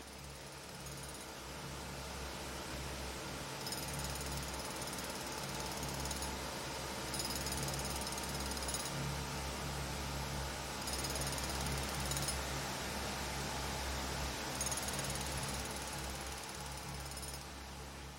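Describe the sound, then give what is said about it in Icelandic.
A rescue drill boring through rock toward trapped miners: a continuous, heavy mechanical drilling roar with a deep low rumble, overlaid by recurring bursts of high-pitched grinding whine that come and go every few seconds. No voices. “Námumennir heyrðu allan sólaringin borhljóð sem færði snær.”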